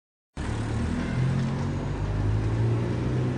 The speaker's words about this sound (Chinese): 汽车行驶在宽阔的长安街。